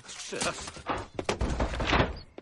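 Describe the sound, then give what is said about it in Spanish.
A house door thuds shut with a dull knock as someone enters the house, amid shuffling movement and scraping noise, with a short burst of other activity following. “Si entra en la casa y cierra la puerta.”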